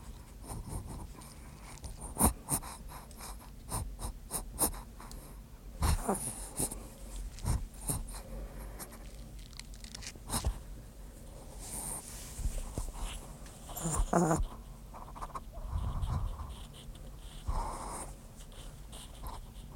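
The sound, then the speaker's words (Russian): A dog breathes and snorts, recorded as an ASMR experiment, with wheezy sniffs and huffs scattered irregularly over a soft, continuous background of rustling and shuffling. No one speaks. “Сейчас мы попробуем с собакой записать небольшой ASMR-блог.”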